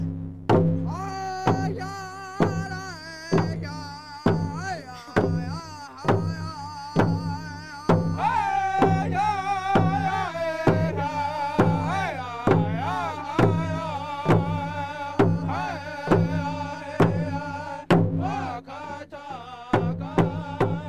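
Drummers at a campfire beat a steady, even rhythm of loud thumps, about one per second, while voices sing a wavering chant over the top: the buffalo song, played to calm a buffalo bull that won't come off a truck, carried by the group throughout.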